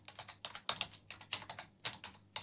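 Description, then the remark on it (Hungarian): Steady, slightly uneven key presses on a computer keyboard, pecked out one at a time with two fingers, fairly quiet, with no talking. “De hallják ezt a csodálatos ritmikus kis gépelést, hogy két ujjal.”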